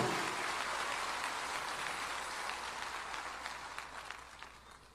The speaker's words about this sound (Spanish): Puede darle un aplauso de gloria a ese Dios todopoderoso. Aleluya.